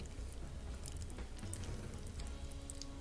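Popping candy, made to look like bath salts, crackles and fizzes in a Blue Lagoon-style cocktail topped up with soda water, a dense, steady stream of tiny quick pops and snaps, fairly soft, continuing without pause and with no talking.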